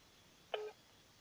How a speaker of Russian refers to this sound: Номер не отвечает.